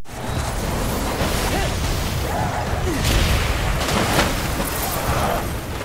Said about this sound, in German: Äh, das, was ihr hier gerade gehört habt, das war einer der etwas, ich sag mal, ekligeren Gegner.